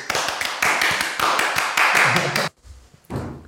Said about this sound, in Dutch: Ja, mogen wij alvast een warm applaus